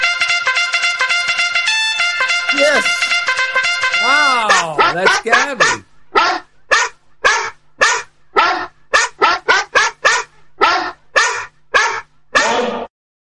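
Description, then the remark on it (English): A female dog, Gabby, whines and yowls in a long, sliding cry during a radio show, then breaks into a loud run of a dozen or so sharp barks in a steady rhythm. “She's been barking throughout the show.”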